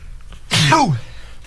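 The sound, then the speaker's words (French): A single loud sneeze bursts out sharply and fades within half a second, with quiet background before and after. “Éternue ma vie au complet.”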